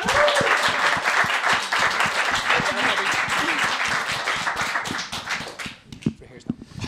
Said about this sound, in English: Round, round of applause for two guys.